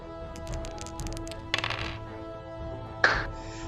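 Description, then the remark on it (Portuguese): Dice are rolled for an axe attack in a tabletop role-playing game, scoring 22: they rattle and clatter across a surface in a run of light, quick clicks followed by two sharper bursts of tumbling, with no voices over them. “Beleza, rola aí. Dependendo do resultado, você consegue.”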